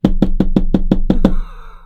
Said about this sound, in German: Willst du jetzt wirklich auf den Tisch klopfen ja, während der Aufnahme? Natürlich. Wirklich? Ja. Warum? Weißt du, wie sich das dann anhört? Na so.